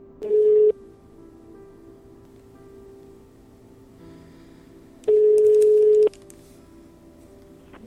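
A phone line's ringback tone sounds twice, each a steady, moderately loud one-second beep separated by a long pause, with faint line hiss and soft handling noise in between.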